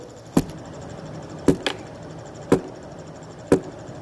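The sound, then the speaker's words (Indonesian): Sharp, hollow wooden knocks of a shepherd's staff guiding sheep through a dark valley, struck about once a second with a quick double tap on the second beat, distinct against a faint background hiss, with no talking. “Di saat mereka melewati lembah kekelaman, maka tongkat sang gembala akan mengetuk.”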